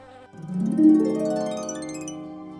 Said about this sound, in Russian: Обычно насекомые жужжат.